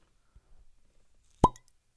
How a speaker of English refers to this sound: Widow Jane, aged ten years. This is a product from New York. And so um, I'm gonna pop the cork. It's a cork, so we can get a pull.